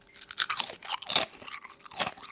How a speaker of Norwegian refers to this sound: Nei, jeg tror dette her var Sørlandschips, og det er altså Aha. Det er min nemesis